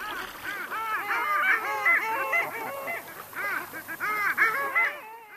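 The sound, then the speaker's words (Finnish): A large flock of long-tailed ducks calls continuously, many overlapping yodelling, nasal honks rising and falling in a dense chorus, some birds loud, others fainter. “Öisin tuntui koko meri laulavan allien kehtolaulua.”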